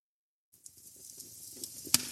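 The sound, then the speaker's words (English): A crackling fireplace sound played on an Alexa device in Ohio on a chilly weekend before Christmas starts up after a brief silence: a steady soft hiss dotted with small snaps and pops, ending on one sharp, louder crack, with no voices. “So, Alexa, open fireplace sounds.”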